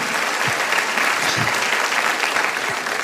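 A church audience applauds during a preacher's sermon about God, a dense wash of clapping hands at an even, fairly loud level for a few seconds, with no voices standing out.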